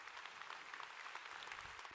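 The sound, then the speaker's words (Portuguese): A crowd claps steadily in applause given to the Lord Jesus, a dense, continuous patter of many hands with no voices over it, holding an even level throughout. “Quem pode dar um aplauso ao Senhor Jesus?”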